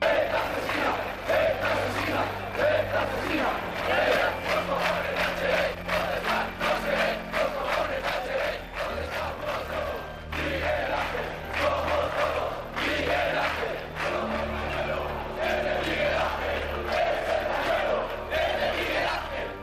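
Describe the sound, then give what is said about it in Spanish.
A large crowd chants a protest shout in unison after the killing of Miguel Ángel Blanco by ETA, loud and sustained, with many voices rising and falling in rhythmic pulses for about twenty seconds without a break. “Y este grito explica el sentimiento de la gente porque todos empezaron a sentir que si habían matado a Miguel Ángel Blanco podían matar a cualquiera.”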